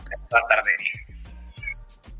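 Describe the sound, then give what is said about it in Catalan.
A cat lets out one drawn-out, fairly loud meow, its pitch rising then trailing off, while a person keeps talking around and after it. “sobre todo ahora le dedico mucho tiempo a mi gato. Sí, ja se l'escucha.”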